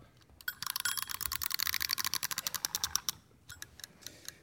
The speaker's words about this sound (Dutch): Dan eh, starten wij de wekker en dan eh, gaan we van start.